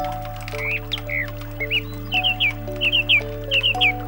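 Bright, short bird calls chirp in quick little clusters, repeating every half second or so over a steady, sustained musical drone. No one speaks.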